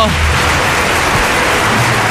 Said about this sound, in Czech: Zaslouží si potlesk.